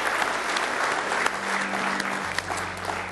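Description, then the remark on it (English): A church audience claps steadily for a few seconds as a morning hand clap of praise to the Lord, a dense, continuous wash of many hands, with a low sustained tone humming faintly underneath. “Oh, go ahead and give the Lord a good hand clap of praise this morning.”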